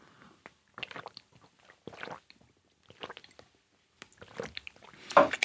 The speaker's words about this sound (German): Ich muss mal was trinken. Entschuldigung.